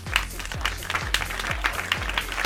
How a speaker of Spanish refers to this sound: Te mando unos fuertes aplausos desde aquí.